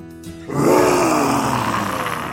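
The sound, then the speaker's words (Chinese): A single drawn-out, throaty growl-roar from a human voice imitating a big, hungry brown bear in a forest, starting abruptly, rough and loud, sliding down in pitch before trailing off over about two seconds. “有一天，贝拉和往常一样在森林中冒险，突然遇到了一只肚子很饿的大棕熊。大棕熊看住贝拉，凶恶地说”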